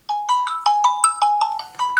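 A phone ringtone plays a quick, bright electronic melody of repeated short tonal notes, steady and fairly loud, with no voices over it.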